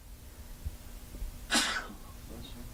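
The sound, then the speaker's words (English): A single sharp sneeze bursts out midway, loud, a quick hissing blast that fades within a fraction of a second against a quiet background hum. “Bless you.”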